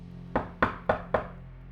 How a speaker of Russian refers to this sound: Но тут же отмахнулся от этой мысли и поискал кнопку звонка. Так и не увидев ее, он постучал.